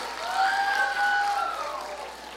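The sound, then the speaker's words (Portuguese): An audience at a church service applauds for Jesus in a steady, dense wash of clapping, with a rising and falling whoop or cheer cutting through briefly near the middle. “É, é, aplauda Jesus aí que eu vou tomar uma.”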